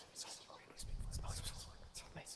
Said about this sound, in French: Mais pour Nairu, tu entends t'entends ces espèces de murmures-là.